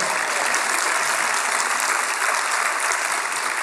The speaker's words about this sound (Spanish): Ese aplauso es para Dios, déselo fuerte.